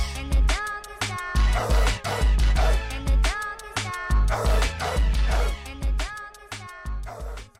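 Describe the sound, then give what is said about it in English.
A short, punchy music jingle with thumping bass and steady drums, woven with repeated dog barks and yips that ride the beat, playing loud and continuous without any talking. “I think we should uh, hit the dog moment music real quick and go on a little bit about that.”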